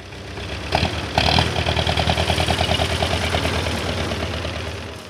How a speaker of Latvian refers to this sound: Patsmit tonu smagais lieljaudas frontālais iekrāvējs iebrauc Jēkabpilī un apstājas Krustpils vēsturiskajā parkā.